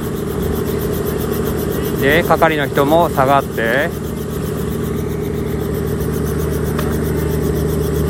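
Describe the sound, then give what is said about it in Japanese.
A passenger helicopter's engine runs steadily before takeoff, with its rotor speed rising. It makes a continuous low, droning hum with layered tonal bands. A person speaks briefly over it partway through, and the engine keeps running unchanged afterward. “また旅立ちますいってらっしゃい回転数上がってますあ浮き上がりますわ”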